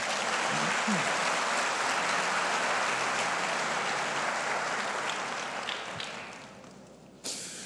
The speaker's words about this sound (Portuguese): aplauda mais uma vez o Senhor.